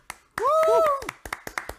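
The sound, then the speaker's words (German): A short burst of hand clapping, quick sharp claps continuing in an uneven rhythm, with a voice letting out a rising whoop over the start of the applause. “Komm, wir können nochmal ganz kurz klatschen.”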